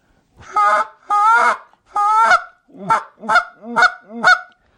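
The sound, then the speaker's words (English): A goose call is blown, mimicking goose honks: three drawn-out, raspy honks followed by four shorter, clipped ones in quick succession, loud and clear with no talking. “so, but you can tune that little 50-50 up for lessers if you want.”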